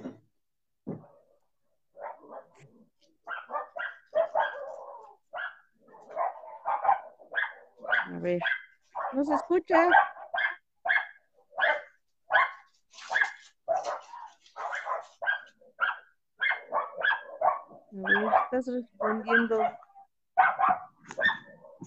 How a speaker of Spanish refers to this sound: ¿Qué onda con tu perrito